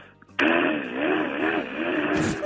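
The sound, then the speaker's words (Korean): A voice impression of a power drill boring during an interior renovation next door: a loud whir continues for about two seconds, its grinding whine wavering up and down in pitch, starting abruptly with no talking over it. “옆집에서 네. 인테리어 하는데 드릴로 뚫는 소리”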